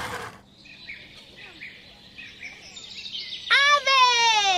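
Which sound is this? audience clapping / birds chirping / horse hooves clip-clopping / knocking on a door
birds chirping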